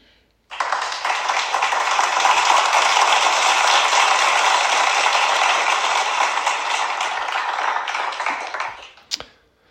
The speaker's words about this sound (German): Und dafür habt ihr alle euch einen Applaus verdient.